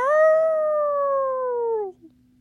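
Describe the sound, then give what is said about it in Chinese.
A single drawn-out jackal howl, a clear, steady tone that slowly slides lower over about two seconds before cutting off, heard alone with no talking. “豺狼在嚎叫”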